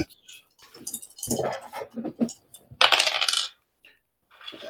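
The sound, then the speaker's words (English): Dice rolled for a strength check in a tabletop game clatter and tumble across a hard tabletop in a flurry of quick, bright clicks, with a louder rattling burst partway through before settling into quiet, with no one talking. “Make a strength check. Come on, come on, Iron Will. Uh, let's see. Okay, dice is gone.”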